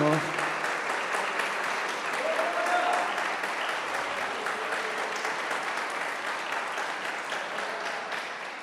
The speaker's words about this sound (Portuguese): Pode aplaudir o Senhor.